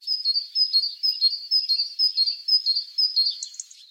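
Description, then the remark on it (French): A great tit sings a steady, repeated two-note phrase in a countryside garden near Chartres in the Eure, France, on a fine, mild 17 May 2022. The bright notes cycle in an even rhythm about twice a second with no talking. “Une maison charbonnière et un moteur au loin parce qu'on est à la campagne.”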